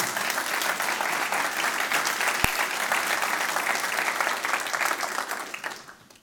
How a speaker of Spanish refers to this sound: Dele ese fuerte aplauso.